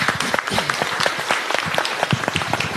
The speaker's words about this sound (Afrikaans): Geef hom 'n ander klap dames en here.